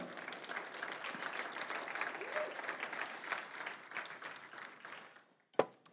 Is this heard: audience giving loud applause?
yes